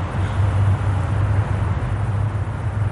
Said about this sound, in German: Das ist eine ganz schöne Atmosphäre hier. Straßenlärm, S-Bahn, Ring, Trams, pinkelnde Hunde,